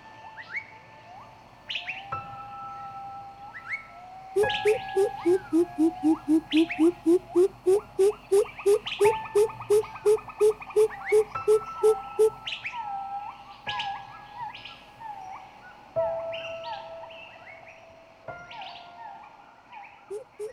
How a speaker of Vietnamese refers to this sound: Suốt ngày chỉ nghe tiếng bìm bịp kêu